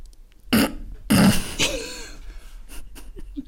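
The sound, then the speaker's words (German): A man in a film scene vomiting into another man's face: two loud, harsh retching heaves in quick succession, the second longer and more forceful, trailing off into a gurgling, wet sputter and a few fainter noises. “Und dann kotzt er dem Typen ins Gesicht.”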